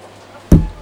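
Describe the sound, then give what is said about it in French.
A single sharp slam of a glass refrigerator door in a supermarket, shut roughly by a customer, loud, with a heavy low thud that quickly fades after a quiet background hum. “Ça, c'est quand on est affalé en rayon dans les frigos, en équilibre dans les portes vitrées, à ramener le pack de yaourts brassés nature par quatre pour la petite mamie qui nous l'a gentiment demandé qu'un client un peu bourrin vient te refermer”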